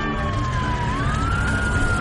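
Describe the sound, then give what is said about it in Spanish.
Sirens of police patrol cars arriving at a bank wail steadily over a loud rumble of traffic, the tone gliding slowly down and back up as the vehicles close in, continuous throughout. “Unos coches patrulla llegan.”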